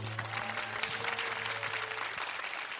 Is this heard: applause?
yes